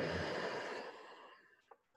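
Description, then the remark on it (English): A long, deep exhale during a yoga practice rushes out, loud and breathy at first and gradually tapering off into quiet over about a second and a half. “Empty out.”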